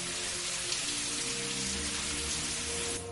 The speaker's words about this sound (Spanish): El joven se lava la cabeza en la ducha. El agua cae de una rejilla situada en el techo.